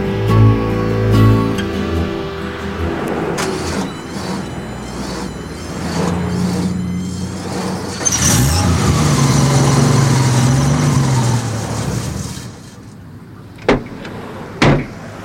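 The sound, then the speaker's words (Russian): A car bought that day idles with a steady low engine hum, then shifts and revs briefly before cutting out, followed by two solid door thuds near the end. “Как тебе мой новый автомобиль?”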